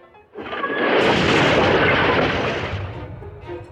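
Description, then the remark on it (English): Wooden stairs collapse under the weight of Injun Joe going upstairs, in one loud, rumbling crash that swells suddenly, roars for a couple of seconds, then tapers off into faint trailing clatter. No voices. “Injun Joe started to go upstairs, but the steps collapsed under his weight.”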